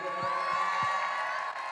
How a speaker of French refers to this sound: Je pense qu'on peut applaudir très fort Cécile à la lumière